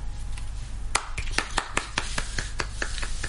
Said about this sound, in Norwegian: Du får en applaus av meg òg. ja, du får en applaus. Vi er jo alene her, så det blir en litt rar applaus.